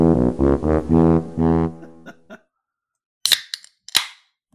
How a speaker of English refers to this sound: that might have been like your top three can cracks ever on craft beer bucket list